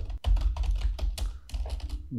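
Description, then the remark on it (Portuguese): Rapid, uneven typing on a laptop keyboard, a run of light clicking keystrokes with brief pauses, heard on its own without any voices. “Estou aqui na frente do notebook, na frente do teclado, aqui, ó.”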